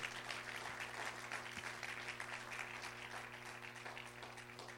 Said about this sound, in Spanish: Vamos a dar un aplauso al Señor si usted lo cree.